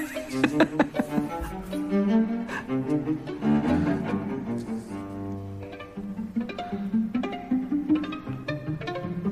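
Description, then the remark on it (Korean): Violin and cello plucked pizzicato together, a busy run of bright, rhythmic string notes over a low line, steady and fairly loud throughout, with no voices. “위에서 이제 두, 둘이 다 한꺼번에 피치카토로 줄을 뜯는 겁니다.”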